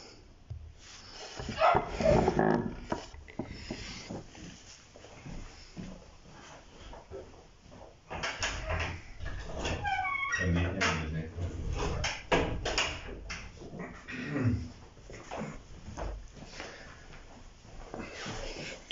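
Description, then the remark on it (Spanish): A small female dog shuffles about right beside the speaker, letting out soft, breathy whimpers and whines in short bursts, with rustling and bumping movement and some indistinct murmuring in the background. “Traje a mi perrita para que estuviera aquí al lado mío y no esté peleando allá afuera con los gatos.”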